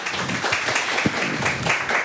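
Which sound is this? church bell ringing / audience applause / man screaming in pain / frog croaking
audience applause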